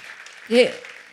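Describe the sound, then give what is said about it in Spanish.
An audience applauds the Lord in a steady, fairly soft patter of many hands, with a single voice briefly crying out above the clapping midway through. “Dale un fuerte aplauso al Señor por esto.”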